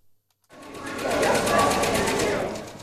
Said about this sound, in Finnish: Kaupunkien nimet vaihtuvat kirjain kerrallaan lentotaulussa nakuttavaan tahtiin samaan tapaan kuin 60-luvulla, jolloin Eero Saarisen suunnittelema TVA-terminaali avattiin.